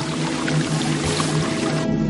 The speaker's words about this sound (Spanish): Los soldados siguen limpiando el camión. El agua espumosa resbala por el vehículo y cae al suelo.